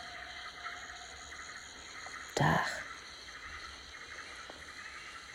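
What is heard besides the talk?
waterfall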